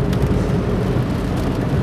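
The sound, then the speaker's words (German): Steady crackle of raindrops hitting a moving car, layered over a low continuous road and engine rumble, fairly loud and constant with no voices. “Also das Knistern hier, das ist nicht irgendwie, ihr hört den Podcast nicht von der Schallplatte, das sind die Regentropfen.”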